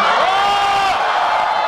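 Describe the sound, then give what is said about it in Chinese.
A loud audience of students cheers and whoops together after watching the film Lost in Hong Kong (港囧), answering a question about being moved during the film: a dense, sustained roar of many voices that holds steady for under two seconds without easing off. “来，第二个问题，在看的过程当中，内心有感动的欢呼。”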